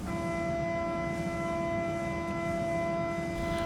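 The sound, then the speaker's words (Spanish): A metro door-closing alarm sounds as one long, unbroken electronic beep, steady and fairly loud, over a low rumbling background with no voices. “En ese momento comienza a sonar la alarma que indica el cierre de puertas.”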